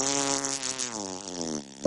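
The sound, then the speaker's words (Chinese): A long, buzzy fart from the character Mr. Pi (皮先生) stretches out for nearly two seconds, its tone wobbling slightly in pitch before ending in a brief, sharp burst. No one speaks over it. “不，皮先生，您放了一个屁。”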